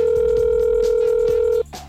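A phone line sounds a steady, clear electronic tone for over a second and a half, then cuts off, followed by a brief softer tone, like a call connecting after dialing; a call placed on KRKO Radio to one of several phone numbers found online.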